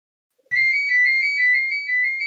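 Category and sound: household object, landline telephone ringing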